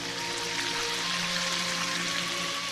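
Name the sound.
water spraying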